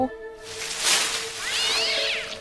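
A cat lets out a drawn-out, whiny meow, fairly loud, its pitch rising and falling, with a brief harmonic tone at the start and no talking.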